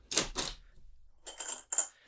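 Coins drop into a vending machine: two sharp clattering knocks, a short pause, then a quick run of bright metallic clinks ending in a ringing chink. No voices are heard.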